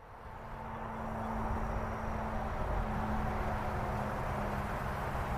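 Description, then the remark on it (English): A steady, dense roar of busy highway traffic on Interstate 95, heard from a parking lot nearby. It rises in over the first second and then holds constant, a continuous wash of passing vehicles with a low hum underneath and no voices. “That to me right there, that is the sound of busy traffic.”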